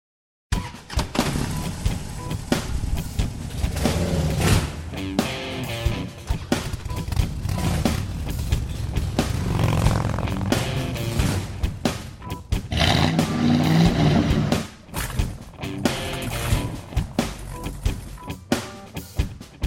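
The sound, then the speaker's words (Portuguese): A loud, dense intro jingle plays for about twenty seconds, with a roaring engine woven through the music, surging and revving. Nobody speaks over it. “Toca a vinheta aí, ô âncora.”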